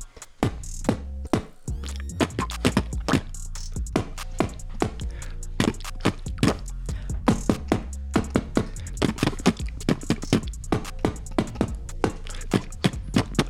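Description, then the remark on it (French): Rapid percussive lip sounds from a beatboxer doing a lip warm-up exercise in tempo: dense, punchy pops and clicks with low thumps, keeping a steady, fast rhythm throughout, fairly loud and without speech. “donc là on a échauffé les labiales, non C'est ça Ouais, on a, on, a, on a chauffé les lèvres”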